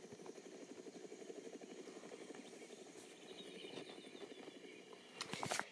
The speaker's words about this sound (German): Kann ich aus dem Helikopter fliegen? Lol, ja, kann ich.